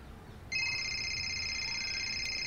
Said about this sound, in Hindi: पता नहीं अब किसका फोन आ गया रुकिए मैं देखती हूँ तुम बैठो मैं देखता हूँ